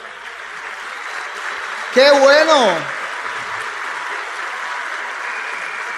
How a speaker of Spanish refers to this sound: ¿Quién aquí es músico? ¿Aquí hay músicos? Wow, wow, por favor pónganse de pie los músicos, les vamos a dar un fuerte aplauso a mis colegas.